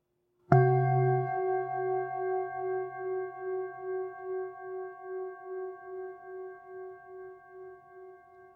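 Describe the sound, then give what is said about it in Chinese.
A brass singing bowl is struck once and left to ring for listeners, to compare with a crystal bowl, its rich layered overtones sustaining for several seconds with a slow, pulsing waver as the tone gradually fades. “然后再给大家听颂钵的声音”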